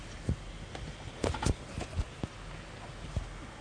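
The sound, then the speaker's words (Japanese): A microphone being fitted and adjusted: a scattered series of dull knocks and rustling bumps at an uneven pace, fairly quiet, with no talking. “マイクをはめてる様子が出ていましたか、はい、もう出てますかはい出てますよ”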